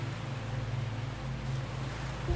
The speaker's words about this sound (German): Du hörst das Rauschen der Wellen und riechst die frische Meeresluft. Das Wasser tanzt bis an deine Füße heran und du hüpfst lachend ein paar Schritte zurück und wieder vor.